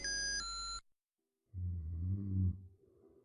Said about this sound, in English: It was around 3 a.m. on a Wednesday, and the walls of my cramped bedroom were shaking under my father's snores.